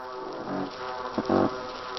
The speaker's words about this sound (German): Letzterer grunzend in einem Fischchor zu hören, gemeinsam mit einem Riesenzackenbarsch, der wie ein Nebelhorn klingt